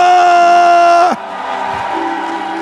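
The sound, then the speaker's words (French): An audience at a Christian worship service, asked to give cries of joy after a prayer, lets out a loud, sustained collective shout of joy lasting about a second, then it breaks off abruptly into a softer murmur of crowd noise. “Que quelqu'un pousse des cris de joie.”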